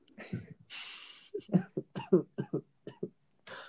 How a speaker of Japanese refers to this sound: これは咳も止まらぬ